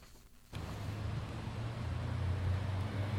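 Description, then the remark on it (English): Downtown street traffic in Halifax at midday swells in after a brief quiet moment, with the steady low rumble of car engines and a broad wash of road noise continuing throughout. “Downtown Halifax can be a busy place at midday. The air is filled with the sounds of car engines, buses, and people.”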